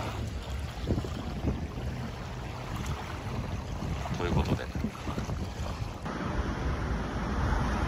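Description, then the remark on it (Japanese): Steady outdoor wind rushes across the microphone with a broad wash of water noise, like waves along a shoreline, on a coast in Saudi Arabia where families are present, continuous and fairly loud, with a brief spoken phrase near the start. “これ、あの、海岸沿いなんですよ。家族連れとかがいますね。えー、航海沿岸に来ました。”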